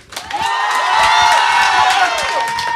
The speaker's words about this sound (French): Je voudrais qu'on les applaudisse encore une fois très fort.